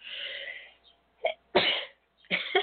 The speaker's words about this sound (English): Sniffing my coffee gave me a little bit of a sneeze there.